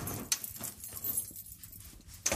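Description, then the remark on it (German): Metallic jangling and clinking of a huge, heavy key, with sharp bright clacks near the start and end and softer rattling in between, as the key bangs against the recorder. “Entschuldigung, ich bin mit dem riesigen, riesigen, schweren Schlüssel gegen den Rekorder geknallt.”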